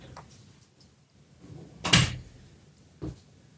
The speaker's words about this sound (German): Äh, kratzt meine Katze, warte. Ah, das hört man voll heftig.